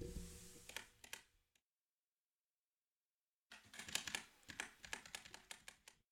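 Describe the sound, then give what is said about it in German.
Rapid clacking keystrokes on a new Logitech computer keyboard switched to game mode, in two bursts separated by about two seconds of silence. The second burst is busier, with crisp, uneven taps. No one speaks. “Ich gehe mal kurz in den Game-Modus auf meiner Tastatur, die übrigens neu ist von Logitech.”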